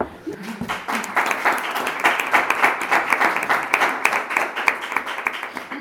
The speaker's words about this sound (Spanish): Un aplauso.